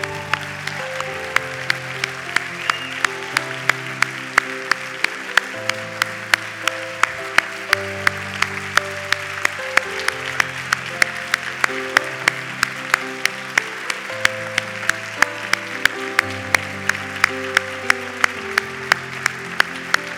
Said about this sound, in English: Come on, let's give him a hand. Come on now. Come on, let's give him a big hand. Come on now.